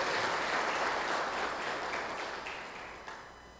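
A church audience applauds steadily for Jesus, a dense wash of many hands clapping that holds strong and then gradually tapers off toward the end, with no voices over it.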